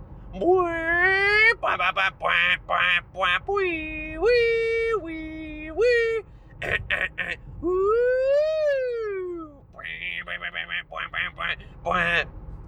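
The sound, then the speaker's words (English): A voice imitates the car horn of a self-driving car sidekick with strained, buzzy honking bursts, mixed with rising and falling wail-like tones, repeated loudly in short choppy blasts and longer sustained notes. “Honk.”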